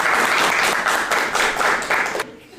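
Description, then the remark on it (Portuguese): An audience applauds steadily, a dense wash of clapping that holds for about two seconds before tapering off abruptly. “Teus palmas pra ela, gente.”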